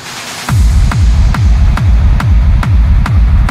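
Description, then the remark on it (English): An electronic dance track kicks in after a brief moment of quiet, loud and driving, with a heavy kick drum pounding at a steady, fast four-on-the-floor pulse and sharp clicks on each beat. “But let's listen, let's listen”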